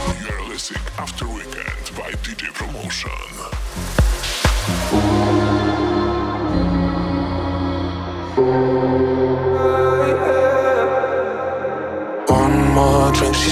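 An electronic dance track opens with punchy, rapid beats, then shifts into sustained synth chords over a deep bass, building steadily before a short pause and a loud return.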